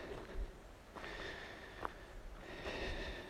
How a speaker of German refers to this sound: Ich gehe gerade durch den Waldberg auf. Deshalb schnaufe ich ein bisschen.